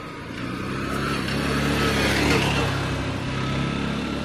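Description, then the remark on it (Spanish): A four-wheeled quad bike's engine drones steadily as it passes along a street in front of a village town hall and church, swelling louder toward the middle and easing off slightly, with a rough, mid-pitched motor hum throughout. “Es más, viene una moto, bueno, esto no es una moto, ¿cómo se llaman los las cosas que parecen una moto pero que tienen cuatro ruedas?”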